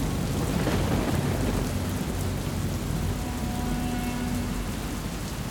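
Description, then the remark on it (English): A thunderstorm with heavy rain pouring steadily and deep thunder rumbling throughout, loud, with no voices. “Fights had broken out, a storm raged overhead.”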